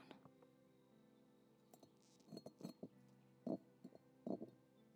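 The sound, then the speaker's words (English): A hollow, broken object with a hole in it and a jagged, uneven break is set back down on a hard surface, making a scattered series of light knocks and glassy clinks, fairly quiet, with no talking. “oh he's it's hollow i just lifted it up and it's hollow not all the way but it's there's a hole here you can hear me put it back down”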